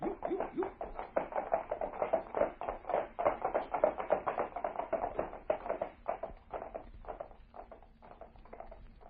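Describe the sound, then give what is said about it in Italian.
Galloping horse hooves as a sound effect: a fast, steady stream of hollow clip-clop beats with no voices, turning sparser and a little quieter toward the end. “Ma io prendere il mio cavallo e seguirlo.”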